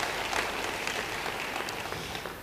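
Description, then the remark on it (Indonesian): A large crowd claps steadily and continuously, a dense wash of many hands at even loudness for a couple of seconds, with no voices standing out. “Yang setuju beri tepuk tangan bagi dia.”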